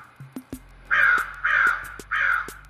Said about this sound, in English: This is the truth because the crows, I'm telling you, the crows are coming.